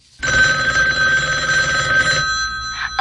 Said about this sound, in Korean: 그러니까 때는 2003년 10월 3일 모처럼 휴일을 맞아 방에 들어누워 벽지 스타일 연구도 해보고 디자인의 유사 공통점을 심층적으로 연구하고 있는데 그때 처형한테서 전화가 왔습니다.